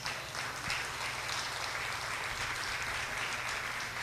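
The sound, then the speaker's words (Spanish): An audience at a church service bursts into sustained applause offered to Jesus as King of Kings, a dense, steady wash of many hands clapping together, holding at an even level for several seconds without any talking. “¿Cuántos le pueden dar un aplauso al Rey de Reyes?”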